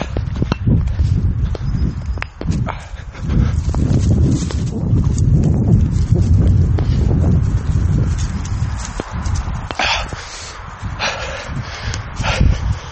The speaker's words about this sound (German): Aber immerhin sind im, Auto, im Hintergrund Autos gefahren, man hört, dass wir laufen.